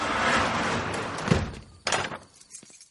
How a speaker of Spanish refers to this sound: El hombre baja la compuerta.